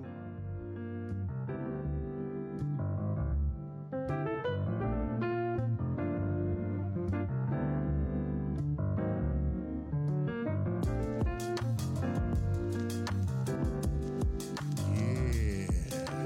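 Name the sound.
hip-hop beat playing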